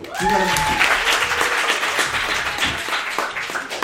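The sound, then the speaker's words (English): A crowd breaks into loud, sustained applause after being asked to clap if they know what a food desert is, dense overlapping claps filling the whole stretch, with a brief cheering woo rising at the start before the clapping gradually thins. “Um, clap up if you know what a food desert is.”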